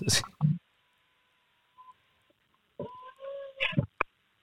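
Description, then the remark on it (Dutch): A phone alarm goes off: a series of short electronic tones, some brief beeps and some held longer, in irregular bursts at a moderate level with quiet gaps between them. “Oh, wacht even, er gaat een alarm af hier.”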